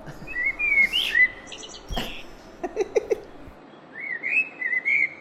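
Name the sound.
birds chirping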